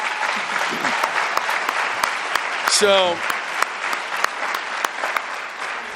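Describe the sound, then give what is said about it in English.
Steady audience applause fills the whole stretch, a dense wash of many hands clapping at even loudness, with a single brief spoken word cutting in near the middle. “And uh, so, can we give him a round of applause, real quick, for that?”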